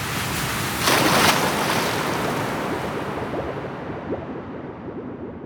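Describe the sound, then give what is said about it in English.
Sea water in a channel washes and laps steadily against a dock, with a brief louder surge early on, then softer, continuous splashing over a broad windy hiss, at three o'clock in the morning in the dark. No voices. “Bhakti stood on the dock overlooking the channel”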